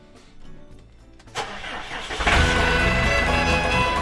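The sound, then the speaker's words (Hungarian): A farm cultivator's engine cranks briefly, catches and roars into a steady, loud idle, its low rumble building and holding to the end. “gazda most felpattant egy kultivátorra, utána néz a kocaforgónak”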